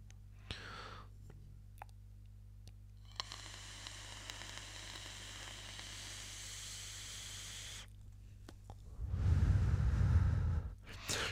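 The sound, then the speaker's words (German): A steady sizzling hiss with faint crackles from a vape coil heating while the fire button is held runs for several seconds, stops, then a louder low rushing burst follows near the end, with no talking. “da hat man es ganz gut gehört, solange so ein bisschen dieses Brutzelgeräusch, Brutzel ist jetzt vielleicht das richtige Wort, aber dieses Knistern mit dabei war, solange war ich auf dem Feuerknopf drauf, solange hat die Spirale geheizt”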